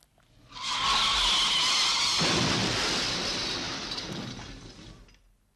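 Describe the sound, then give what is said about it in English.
A loud car skid with a shrill tire squeal lasting over a second, then a crash of breaking glass and clattering debris that slowly fades. No one speaks. “That was breaking glass. It sounded like an accident.”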